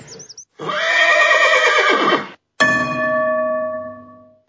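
A horse lets out one long, loud, quavering whinny. A ringing bell-like tone follows and slowly fades, with a brief high chirp just before the neigh. No one speaks.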